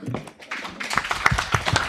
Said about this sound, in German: Vielleicht Danke, mal klatschen